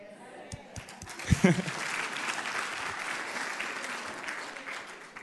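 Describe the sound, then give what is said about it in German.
A church audience breaks into sustained clapping, a dense crackle of many hands that swells quickly and holds steady, with a brief vocal burst near the start. “Wenn einer klatscht, klatschen alle, okay?”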